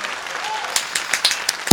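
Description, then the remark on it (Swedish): A short burst of applause, a small group clapping with uneven, crackling claps that build slightly toward the end, with a sharp louder clap near the close. “Helt tycker jag vi är varm en applåd här.”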